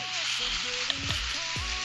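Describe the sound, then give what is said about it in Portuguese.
Heavy rain pours down in a dense, unbroken hiss that stays steady throughout, with faint low murmuring tones underneath. “É uma chuva ferrada que tá caindo aqui.”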